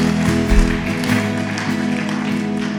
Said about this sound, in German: Komm, lasst uns einmal das feiern durch einen Applaus, dass Jesus gut ist, wenn Menschen die Entscheidung für ihn treffen.